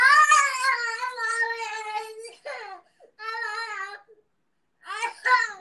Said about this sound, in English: Wait, wait, wait. Didn't I say stop yelling? I You're still yelling.